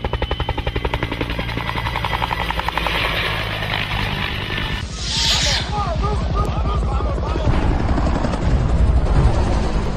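A loud helicopter with fast, rhythmic rotor chop that thuds steadily throughout. A brief burst of hiss cuts in midway while the engine's whine continues underneath.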